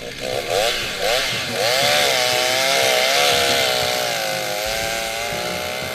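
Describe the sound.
A chainsaw runs loudly, its engine pitch wavering up and down as it cuts firewood, with a steady harsh buzz throughout and a voice faintly mixed in.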